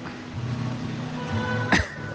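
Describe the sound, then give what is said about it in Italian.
A single harsh, rasping, consumptive-sounding cough bursts out, brief and abrupt, over a steady low humming background with no talking. “scusa la tosse tisica, non è coronavirus.”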